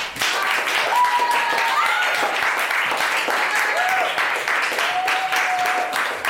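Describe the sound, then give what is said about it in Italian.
Sustained applause from a crowd, a dense wash of rapid clapping at steady loudness for several seconds, with a few faint whistles rising above it. “è la nostra prima rubrica, quindi ci vuole un grande applausometro.”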